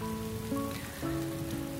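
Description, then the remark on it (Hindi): Light rain falls from the sky in a forest as a cool breeze begins, pattering steadily in a soft, even hiss of drops, with gentle sustained musical tones humming underneath and no voices. “चाय पीकर सब जंगल की तरफ बढ़े तभी धीमी धीमी ठंडी हवाएं शुरू हुई और आसमान से हल्की हल्की बूंदें बरसने लगी”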